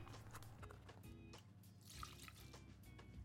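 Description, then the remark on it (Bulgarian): Fresh milk is poured gradually into a pot holding a mixture of eggs, sugar and flour before the stove is turned on; a steady, soft, continuous liquid trickle with small splashes and drips, fairly quiet, with no talking. “Постепенно наливам и прясно мляко, за да може продуктите да се смесят добре.”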